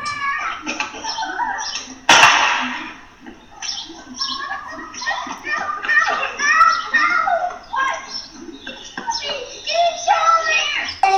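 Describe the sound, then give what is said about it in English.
Children's high-pitched voices chatter and call out over each other outdoors on Candlewood Lane on a Saturday afternoon, lively and continuous, with one sudden sharp gunshot cutting in early on before the playful noise carries on. “You'll see kids playing, hear a gunshot,”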